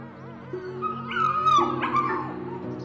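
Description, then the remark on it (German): Several puppies yip and whimper together in high, wavering cries, overlapping excitedly over a steady low hum as they jump up at a wooden pen gate and at a person kneeling in the straw, vying for attention. “Jetzt springen die kleinen Hunde an dir hoch und wetteifern aufgeregt um deine Aufmerksamkeit.”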